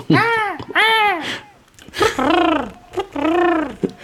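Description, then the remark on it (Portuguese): A voice imitates a woman screaming: four high, wavering wails that rise and fall, fairly loud, with short pauses between them and no other talk. “Isto, é, esta imitação de mulher a gritar foi um bocado.”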